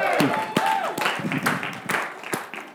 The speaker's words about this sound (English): Let's give him a clap.